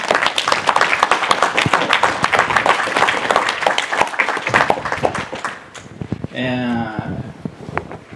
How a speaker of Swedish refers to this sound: Och eh, tack till Fem första. Fantastiskt jobb. Ni samlar pengar till så mycket bra grejer. Stor applåd!